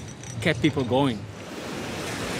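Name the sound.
ocean surf waves breaking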